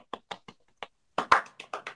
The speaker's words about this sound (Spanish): Entonces, bonito. Aplausos.